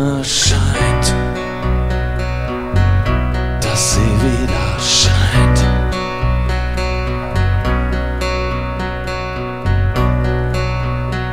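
A loud punk rock song plays with driving distorted guitars, steady pounding drums and crashing cymbals, the dense full-band sound continuing without pause from start to finish.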